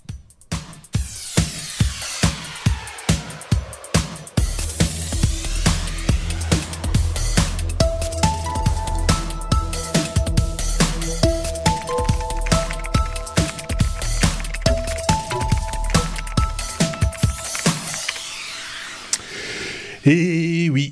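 An intro theme tune: steady percussive beats open, then sustained chords and a bright repeating melody build over a driving rhythm, playing alone and loud before fading out near the end.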